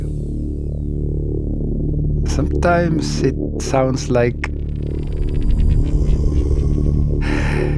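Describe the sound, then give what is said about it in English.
A low, throbbing ambient drone hums steadily in a track meant to feel meditative, while airy swells of the composer's own recorded breathing rise above it, ending in a louder exhale-like rush. A person speaks briefly over the drone midway. “Okay, but it, it gives a breathing because I love all the moving parts of the moving and waving sounds and uh, human breathing.”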